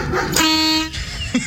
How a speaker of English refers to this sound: So he has an air horn that is strapped to a sensor. Whenever the dog next door barks, this air horn it's goes like a, off.